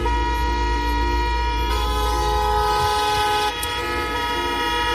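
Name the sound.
car horns honking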